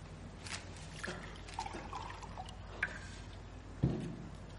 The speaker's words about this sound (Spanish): Se sienta y se sirve agua de una jarra.